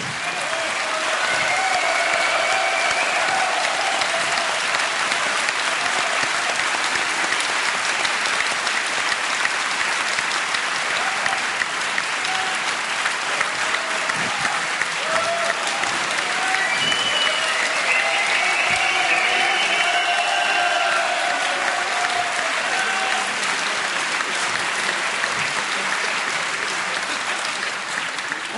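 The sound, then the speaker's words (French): Sustained, dense applause from an audience at a roundtable event in France, a steady roar of many hands clapping at even loudness for nearly half a minute, with a few faint voices mixed in. “Alors, je vous demande aussi d'applaudir beaucoup, même si.”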